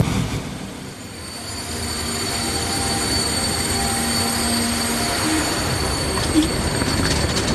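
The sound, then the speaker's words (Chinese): A train rolls into a railway station in Marseille with a steady, loud mechanical rumble, thin high-pitched wheel squeals ringing over it and a brief metallic clank near the end; no one speaks. “Etienne 这一天到马赛来找我们，我去火车站接他。”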